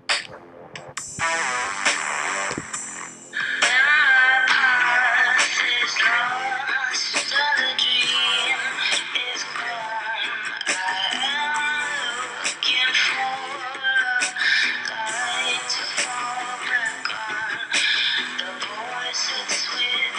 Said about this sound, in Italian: E, e detto ciò eh, vorrei anche ascoltare un altro brano insieme a voi proprio di questi eh, due, uno dei due brani che lei ha dedicato a Baltimora.